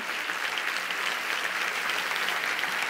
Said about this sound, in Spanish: Si ese aplauso es para Él, mejóralo, iglesia.